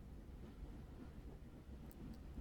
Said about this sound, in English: The train fills the silence, moving us further and further away from home